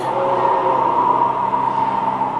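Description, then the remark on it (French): A strong Arctic wind roars steadily and loudly throughout, with a sustained howling tone riding over a dense rushing noise. No voices, just the continuous blast of air. “Parfois, le vent souffle si fort qu'on dirait qu'il hurle.”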